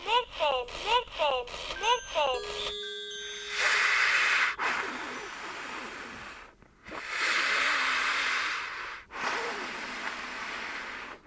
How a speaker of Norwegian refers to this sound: Du lurer kanskje på hva den lyden er. Det er meg som prøver å puste gjennom en bh.